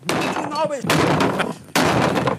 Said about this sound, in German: Du sagst Antwort A. Der Tisch wird zerschlagen. Wir hören mal rein. Und deswegen mache ich jetzt hier diesen Tisch mal kaputt, ja?